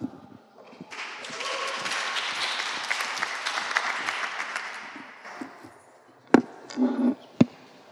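An audience breaks into steady, dense applause for an invited guest speaker; it swells quickly, holds for several seconds and then fades out, followed by a few sharp knocks and thumps.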